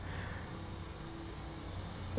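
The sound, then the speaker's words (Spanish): A Volkswagen Beetle car engine hums steadily outside, a low droning rumble with a faint whining tone as the vehicle passes, with no one talking. “¿Por qué hay tantos pinches bochos aquí?”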